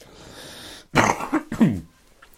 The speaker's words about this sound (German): Entschuldigung, ich muss kurz husten.